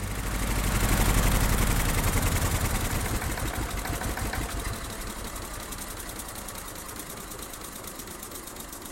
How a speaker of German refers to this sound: wir setzen einen Dieselmotor dort rein. Der Elektrokahn, der immer Eidechse hieß, war jetzt eine Ameise, eine Dieselameise.